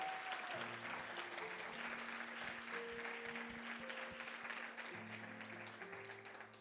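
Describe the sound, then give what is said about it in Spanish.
A large church audience applauds the Lord steadily and loudly for several seconds, a dense wash of clapping, while sustained organ or keyboard chords hold underneath. “En el nombre de Jesús, dale ese aplauso fuerte al Señor.”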